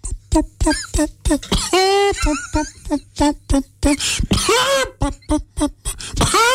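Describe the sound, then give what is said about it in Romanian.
A person imitates a wild hen's cough with a rapid series of sharp, clucking coughs and strained vocal squawks, loud, bursting in quick irregular rhythm for several seconds. “cum tușește găina sălbatică? Cum? Simplu. La fel ca aia uh, domesticită.”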